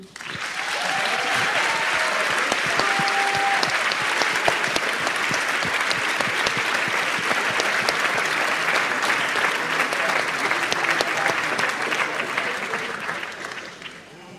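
Sustained applause from a large audience for producer Sandy King at a morning programme of the film The Thing, dense and steady clapping for about fourteen seconds with a few faint voices mixed in, fading slightly at the end.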